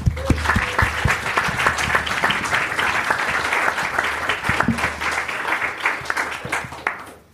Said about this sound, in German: Bitte einen großen Applaus einmal für dich.